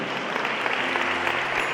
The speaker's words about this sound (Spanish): Dale otro aplauso al fuerte Señor. Amén.